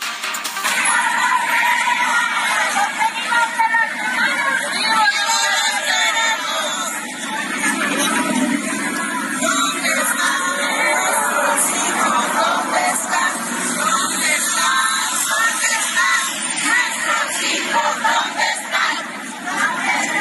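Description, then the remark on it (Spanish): A large protest crowd of mothers searching for their disappeared children shouts and chants together in a loud, continuous roar, voices rising and falling in waves, during a 10 May march from the Monumento a la Madre to the Ángel de la Independencia. “Pues con estos gritos desgarrados no las oyen las autoridades y no las ven.”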